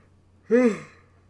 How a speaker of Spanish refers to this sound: Segundo bostezo.